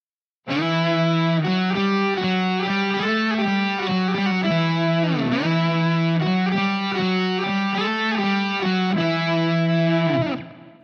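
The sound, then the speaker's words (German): A distorted electric guitar plays a loud, sustained melody in E minor doubled an octave apart, the original melody and a second version starting an octave away played together, the two lines moving through several held notes and a quick bend in the middle, with no talking. “Und so klingen beide Melodien zusammen.”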